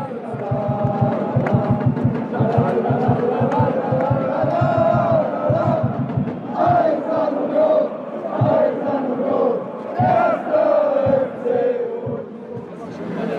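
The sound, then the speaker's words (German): A large stadium crowd of football fans sings call-and-response chants loudly in unison, sustained melodic singing with rhythmic surges and sharp shouted accents, continuous, without pause. “entweder haben sich Fans mang den Sitzplätzen gemogelt und haben Wechselgesang angestimmt oder das waren die Fans alleine”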